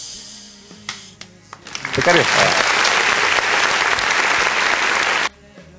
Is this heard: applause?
yes